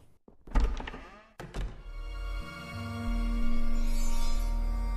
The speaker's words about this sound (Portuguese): E você ouviu algo se destrancar. Ah, bom, perfeito. A porta do próximo andar destrancou e você tá progredindo.